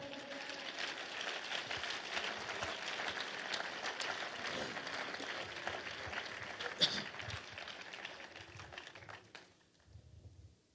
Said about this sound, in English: Would you clap your hands to the Lord?